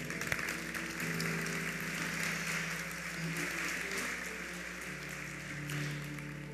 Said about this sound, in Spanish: gracias, ¿eh? un aplauso para ella.